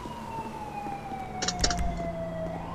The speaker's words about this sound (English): Ah, Los Santos police car.